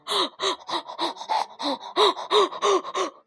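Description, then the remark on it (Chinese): A storyteller's voice imitates the frantic panting of a little pig so out of breath from running that it can hardly breathe: about a dozen quick, breathy gasps in a steady rhythm, each with a short voiced rising-falling tone, loud and alone without any words. “跑的气儿都喘不过来了。”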